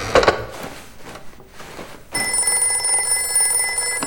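After a few soft knocks and rustles, a telephone starts ringing halfway through, a loud, bright, sustained electronic ring that continues to the end with no one speaking.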